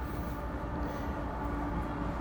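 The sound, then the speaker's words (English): A train rumbles steadily past with continuous low-frequency roar and rattling, fairly loud and sustained throughout, with no talking. “I hear the train a coming.”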